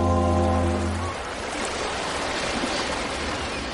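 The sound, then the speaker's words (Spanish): Waves wash steadily along a beach shoreline in a continuous, fairly loud rushing hiss, with a low droning hum at the very start that cuts out after about a second. “Luego corre por la playa hasta llegar al agua de la orilla.”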